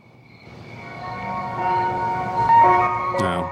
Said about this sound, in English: It's a video, 90, uh, standard 90s video. You got yourself a ice cream truck, California which town.